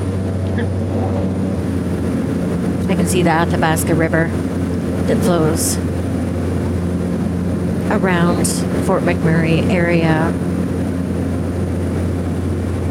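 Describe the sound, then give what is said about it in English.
Steady droning hum of a nine-seater propeller plane engine in flight to Fort Chip, loud and constant throughout, with a man speaking over the cabin noise. “So the next morning, I took a nine seater prop plane to get there.”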